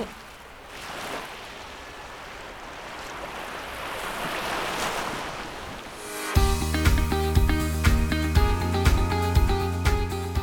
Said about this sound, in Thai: เสียงคลื่นกระทบฝั่ง และเสียงผู้คนที่นี่ จะแตกต่างอย่างไรกับเสียงที่เราได้บันทึกไว้ในวันนี